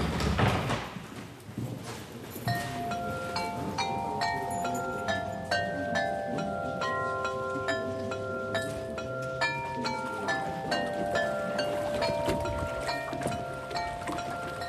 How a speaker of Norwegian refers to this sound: Lyden fra 39 porselensklokker i Vår Frues kirke i Maisen blander seg med bølgeslag mot en brygge ved Halden i Norge.